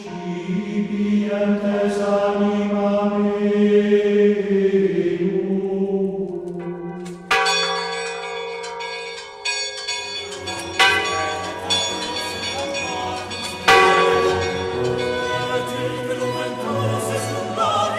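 Church bells ring out loudly, with several strikes layered over each other and long resonant tones lingering between them. No one speaks.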